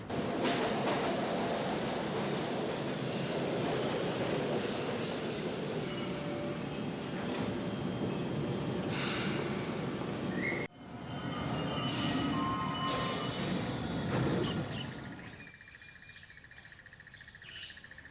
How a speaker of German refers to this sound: Wir fahren sehr viel U-Bahn, also ja, genau.